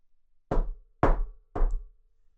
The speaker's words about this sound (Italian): Dopo un po' si scontrano tutti con l'ometto che si è fermato davanti a un portone simile a quello dell'ingresso e bussa.